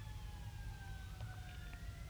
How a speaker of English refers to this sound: Hold on, it's about to get loud. We got a uh, fire truck coming. Let me hide the mic here. Okay, that wasn't that loud.